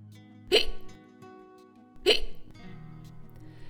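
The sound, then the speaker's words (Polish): Two sharp hiccups, about a second and a half apart, loud, each a short abrupt gulp with a brief rasp, separated by near quiet. “O przewlekłej czkawce mówimy wtedy, kiedy trwa ponad dwie doby.”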